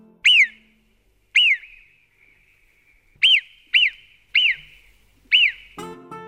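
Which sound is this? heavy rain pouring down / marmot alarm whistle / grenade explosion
marmot alarm whistle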